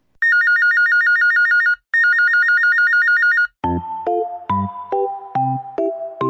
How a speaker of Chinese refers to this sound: 电话响，铃铃铃，拿起电话听一听。